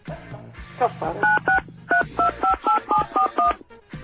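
A rapid series of telephone keypad tones being dialed, about ten short beeps in a quick, slightly uneven rhythm, each a paired electronic tone, with faint background murmur at the start.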